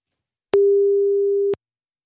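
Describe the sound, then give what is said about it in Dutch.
A single phone ringback tone heard while a phone call to a mother connects: one steady, clear electronic beep lasting about a second, framed by faint clicks, with silence before and after. “Dus we gaan even mijn moeder proberen te bellen.”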